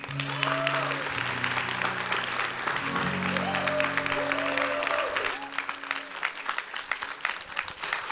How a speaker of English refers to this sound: Good morning, Cap City. We normally don't get applause climbing up. That's, like that's pretty cool.